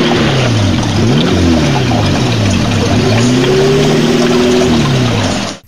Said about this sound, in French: Comme une bagnole qui arrive. Ah mais ça arrive bon.